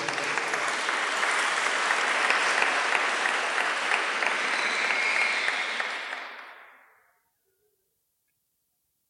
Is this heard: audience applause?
yes